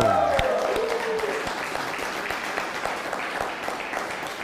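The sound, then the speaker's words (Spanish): Steady applause from an audience for a viewer watching the show, a dense wash of many hands clapping at a constant level, with a brief tonal voice or cheer fading out at the start. “Lorenzo Juárez, denle un fuerte aplauso que nos está viendo.”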